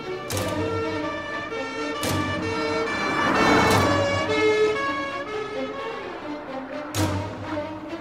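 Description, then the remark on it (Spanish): A loud, steady ambulance siren with a rich harmonic tone, broken by a few sharp bursts of noise, with traffic rumble underneath and no voices; the ambulance is moving a detainee from the Cruz Verde to police headquarters. “Por fin, una tarde decidí sacarlo de la Cruz Verde en una ambulancia y trasladarlo a una de las celdas blindadas de la jefatura de policía en la sexta delegación.”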